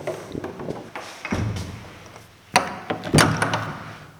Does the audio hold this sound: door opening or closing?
yes